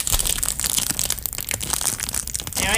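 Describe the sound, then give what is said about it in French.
A Cadbury product's biscuit wrapper, held in front of a microphone, crinkles and crackles loudly as it is pulled and torn open with some difficulty, a dense, continuous rustle lasting a few seconds with no voices. “Plus difficile à ouvrir celui-là, ça paraît qu'il y a un défi.”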